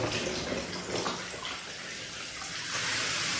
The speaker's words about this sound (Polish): no słuchajcie, gorąca kąpiel powinna mi pomóc.